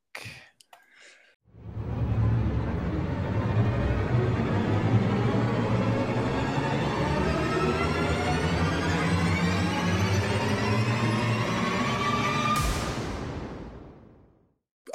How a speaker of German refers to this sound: Und ich muss mal gucken, ob ich hier den Knopf finde, dass ich auf den Jingle klicke.